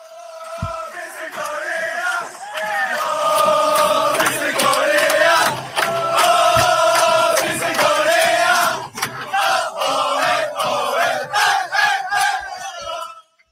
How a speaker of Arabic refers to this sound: ناس بيتفرجوا وسقفوا لما كل جابت الجون وكل حاجه بس كان في تشجيع التشجيع كان ايه بقى؟ آه. آه حاجه احنا مش فاهمينها آه بس هشغلها لك